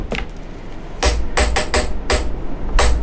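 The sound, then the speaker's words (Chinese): Hand taps on a hard surface in a short rhythmic pattern: about six sharp, loud knocks, a quick cluster of three, then two more spaced apart, with no voices. “好，你你找一个不一样的材质，用同样的韵律来拍拍看。”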